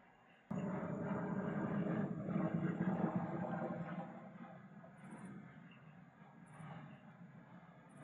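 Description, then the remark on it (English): A broad, rumbling roar of an airplane passing overhead, loud and steady at first, then slowly easing off as it moves away, with no one speaking. “just waiting for a plane to pass overhead.”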